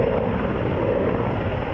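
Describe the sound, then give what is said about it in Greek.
A firefighting aircraft's engine roars in a loud, steady, rumbling drone with a low hum underneath, as aerial units fight a wildfire in strong wind near the Makri junction by Alexandroupoli. It holds evenly for the whole moment, and no one speaks. “Εναέρια μέσα επιχειρούν συνεχώ για να περιορίσουν τη φωτιά.”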